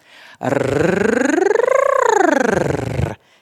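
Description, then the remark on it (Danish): A voice makes a long rolled-tongue trill as a voice exercise, a steady buzzing rattle that rises and falls in pitch like a siren for about three seconds, loud. “Hvis I er ved at dø af grin over den tossede lyd, eller har svært ved øh, at lave den, fordi I, I bare kommer til at smile af det, så kan I vælge at sige en anden lyd, og den lyder sådan her, der ruller I med tungen i stedet for.”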